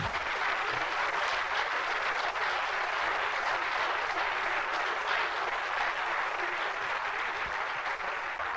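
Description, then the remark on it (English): Steady audience applause fills the whole stretch, a dense, even patter of many hands clapping at a constant loudness with no voices rising above it. “A round of applause for Uncle”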